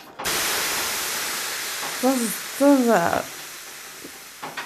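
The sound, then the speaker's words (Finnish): Water hits hot sauna stones with a loud, steady hissing sizzle lasting several seconds, while two short falling vocal groans rise over it midway before the hiss fades. “Saunan ääniä löydyn heittoon.”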